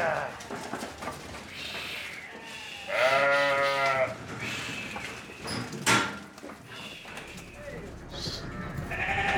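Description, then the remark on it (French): A man's voice imitates a sheep's bleat, a loud wavering baa lasting about a second, amid other vocal noises and some background talk. “typique à moi, ça, c'est mon son personnel que d'être habitué avec les agneaux, avec les moutons tous les jours.”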